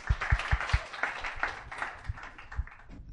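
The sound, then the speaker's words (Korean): A few people clap briefly to open a discussion of the film Whiplash, with a quick run of sharp, evenly spaced claps at the start that thins into scattered, softer claps and fades out. No one speaks. “박수를 한번 빠지십시오”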